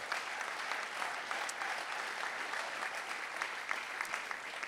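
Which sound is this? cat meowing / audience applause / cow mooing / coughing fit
audience applause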